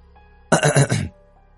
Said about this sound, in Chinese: 跪在地上，他清了清嗓子，就开始念了